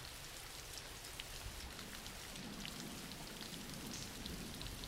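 Steady rain falls without a break, a dense hiss of drops pattering on surfaces with a soft low rumble underneath, holding an even loudness throughout and no voices.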